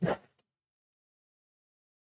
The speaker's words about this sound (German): Warte mal, ich muss mal meine LSD-Nase putzen. Äh, Kokain.